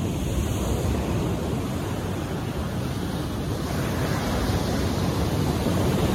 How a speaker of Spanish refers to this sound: Inhala. Exhala. Escucha el sonido del mar.